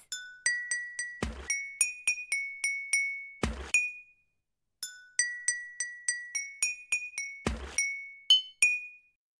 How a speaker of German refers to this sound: es gibt eine Wasserorgel. Diesmal werden die Flaschen angeschlagen und ein Lied entsteht.